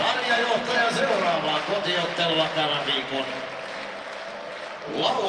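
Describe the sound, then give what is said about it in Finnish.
A hockey crowd at Nokia Arena roars and cheers as Ilves celebrate a win, players leading the fans at the arena's north end: a dense, sustained wall of voices, with chanting swelling again near the end. “ja Otto Latvalaa siellä komennetaan nyt seremoniamestariksi Ilveksen ja Kyllähän sieltä Ode lähtee ottamaan yleisönsä tuonne Nokia Areenan pohjoispäätyyn.”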